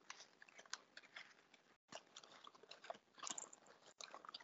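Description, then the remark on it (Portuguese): A sheet of paper being uncrumpled after being crumpled, with steady crackling and crinkling for several seconds, broken by two brief pauses. No voices. “Agora desamassa a folha.”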